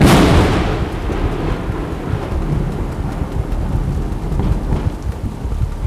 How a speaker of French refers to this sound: Se pensant abrité par l'habitacle de sa voiture, il n'a pas pris soin de fermer ses vitres. Grave erreur. La foudre le frappe par la fenêtre ouverte.